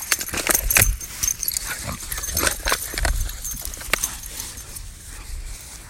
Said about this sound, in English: so that's a little scuffle with my dog because he likes to act the fool sometimes when we come out here. So that's what you heard all that commotion. So he likes to run around and things like that.